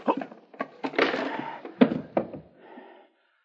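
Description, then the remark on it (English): A rapid flurry of dull thuds and scuffling impacts of punches landing on a man's body, followed by a softer fading rustle. “Thanks for letting me take that poke at him, Vance.”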